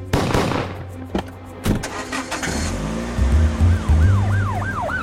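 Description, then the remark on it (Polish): Car engines roar and rev loudly with sharp impacts, then a wailing police siren rises and falls repeatedly near the end, like a frantic chase scene. “Filmy akcji, a w nich wystrzały z pistoletów i pościgi samochodowe.”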